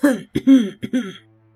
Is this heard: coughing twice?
yes